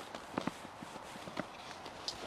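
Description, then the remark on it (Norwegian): A horse's hooves walking, soft irregular clops over a faint background hiss, fairly quiet, with no one talking. “Er det den hesten du ri, pleier å ri”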